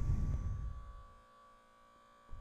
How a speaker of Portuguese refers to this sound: O meu frigorífico está a fazer barulho.